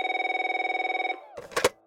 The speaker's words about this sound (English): Not much after the Millers left, Jane was lying on the couch watching TV when the phone rang.